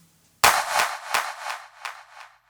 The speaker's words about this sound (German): Und mit den beiden aktiviert, also mit Echo Boy und Camel Crusher, ist jetzt äh, aus diesem relativ harmlosen Klatscher das hier geworden.